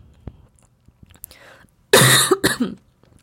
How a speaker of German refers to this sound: ja, und an diesen Husterern und an diesen Versprechern und an meinen Räusperern merkst du, dass ich voll im Fluss bin und dass ich meine Podcast-Folgen immer live aufnehme, wie es mir gerade kommt.